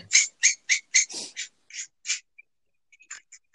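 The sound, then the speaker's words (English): A Stanley utility knife scrapes a bit of metal in a quick, steady run of about eight shrill, squeaky strokes, then trails off into a few faint scratches. “That's my Stanley knife scraping a fucking bit of metal because I don't have anything else to work with.”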